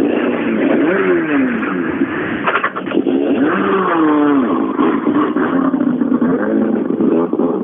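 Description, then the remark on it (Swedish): A Skoda Super 2000 rally car engine roars continuously, its pitch rising and falling in rapid revving sweeps with sharp gear-change dips, loud throughout and with no talking. “Det här är en Skoda Super 2000 om du undrar vad det är som låter.”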